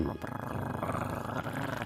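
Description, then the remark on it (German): A person imitates a cat's purr with a steady, rough, rolling voice, a low continuous rumble held for a couple of seconds. “Ich schnurr mal. Brrr, brrr, miau.”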